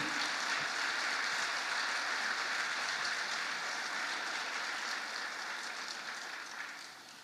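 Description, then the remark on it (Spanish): A crowd applauds for Jesus, clapping steadily in a dense, continuous wash of applause that holds for several seconds, then begins to thin and fade toward the end. No one speaks over it. “Dar un aplauso a Jesús.”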